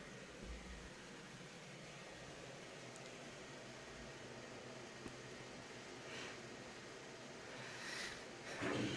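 A computer's fan, running in silent mode, whirs quietly and steadily, a soft constant hiss with a low hum underneath, running alone with no talking, then swelling slightly near the end.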